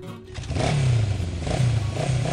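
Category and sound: vehicle, scooter engine revving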